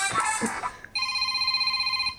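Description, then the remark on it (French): A phone ringtone plays: after a short noisy burst, a loud, steady electronic tone with a bright buzzy timbre sounds continuously, pulsing faintly until the end. “que ta sonnerie, c'était ça.”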